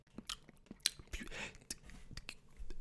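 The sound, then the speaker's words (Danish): Crunchy chewing of brittle, crumbly candy, a quick series of sharp crackling bites and crumbling textures repeating irregularly, fairly quiet with no talking. “Ja, så det, det krymlet, det knaser bare.”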